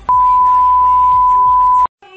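A loud, steady high-pitched censor bleep holds for almost two seconds, blanking out speech that still murmurs faintly underneath, then cuts off abruptly as talking resumes.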